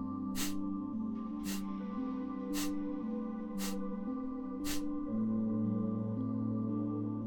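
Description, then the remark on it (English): Five sharp, forceful exhales through the nose during Kapalabhati breathing, about one per second, like short puffs of air pushed out in a steady rhythm with quiet inhales, over a sustained, droning musical background. “So, a few rounds of Kapalabhati might sound something like this.”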